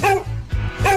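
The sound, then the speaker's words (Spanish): A small dog gives two short, high-pitched yappy barks, one at the start and one near the end, fairly loud with a brief pause between them. “Ah, o un perrito.”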